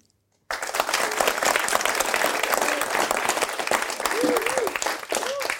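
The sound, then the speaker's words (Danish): A live audience seated in the planetarium at Stenemuseet, under a projected starry sky, breaks into steady, sustained applause after a brief silence, dense clapping with a few faint voices and cheers mixed in. “Vi sidder under en stjernehimmel i planetariet, men skal vi ikke også lige øh, lade alle dem derhjemme høre, at vi altså ikke sidder her helt alene?”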